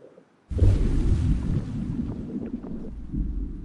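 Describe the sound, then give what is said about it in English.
A deep churning rumble simulating a submarine propeller, made from a splash recording pitched down two octaves with high frequencies removed, mixed with splash from an overhead microphone and looped; it starts abruptly after a brief near-silence and continues loudly with a rough, slightly pulsing texture of watery turbulence. “they were asked to produce the sound of the propeller of the submarine.”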